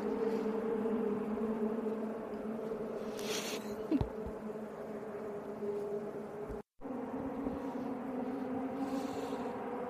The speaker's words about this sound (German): Ja, ich sitze hier auf meinem Balkon und genieße den Sound der Autos vom der DTM hier in Nürnberg.